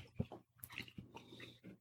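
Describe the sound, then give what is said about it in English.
Crunching as someone bites and chews a crisp chocolate mint cookie, a few irregular crackly bites and soft mouth sounds, fairly quiet, with no talking. “Mm-hmm that's a crunchy cookie.”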